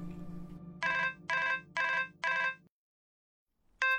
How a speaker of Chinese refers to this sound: 突然，电话又响了。